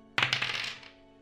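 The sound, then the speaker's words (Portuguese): Dice are rolled for an Athletics check after a character kicks a door: a sudden clatter of quick, sharp clicks that tumbles for about half a second, then fades out. No one speaks over it. “Beleza, rola aí o teu Atlético.”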